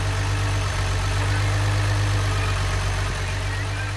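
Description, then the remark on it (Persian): A car engine idles steadily as the car is being guided in, a constant low rumbling hum with a faint hiss above it, holding even for the whole stretch with no voices. “لطفا ماشین راهنمایی کنیم”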